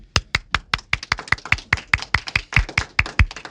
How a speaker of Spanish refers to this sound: te pido un aplauso porque hoy también